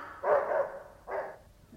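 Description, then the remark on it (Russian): A small dog, kept by an old woman standing watch, barks twice, a longer yap followed by a shorter one after a brief pause, clear with no talking around it. “Бабуся с собачкой покараулит.”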